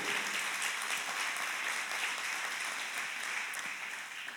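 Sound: audience applauding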